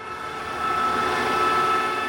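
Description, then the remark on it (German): The agitator of a small farm biogas plant stirring manure and slurry gives off a steady mechanical drone with sustained tonal whines, growing slightly louder partway through and holding constant, with no voices present. “Also das Geräusch, was Sie jetzt hören, das ist das ähm, Geräusch des Rührwerkes der Biogasanlage.”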